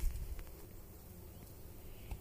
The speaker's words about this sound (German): Ähm, ich bin da jetzt gerade bei einem blühenden Lindenbaum und wenn man genau hört, hört man noch das Summen der Bienen